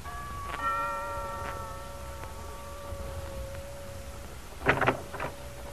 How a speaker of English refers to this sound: when the door chime rings.